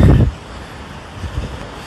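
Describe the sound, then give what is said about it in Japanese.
A snowplow rumbles along a snow-covered city street with moderate traffic in Vancouver, Canada, its low engine drone steady beneath gusts of wind buffeting the microphone, strongest in a brief burst at the start. “ああ除雪機がいますね”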